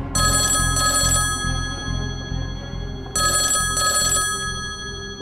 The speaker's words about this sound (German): Und dann klingelt dein Telefon.